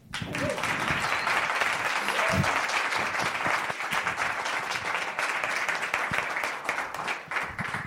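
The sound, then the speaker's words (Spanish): Sustained audience applause welcoming a journalist guest at a cultural event on a fourth floor in Callao, a dense wash of many hands clapping at steady loudness for several seconds, with a few faint voices or cheers mixed underneath. “Y lo que vamos a hacer es pedir a nuestro público que recibamos que se merece con un fuerte aplauso porque ni más ni menos que tenemos hoy como invitada ilustre de esta edición lunera a la periodista”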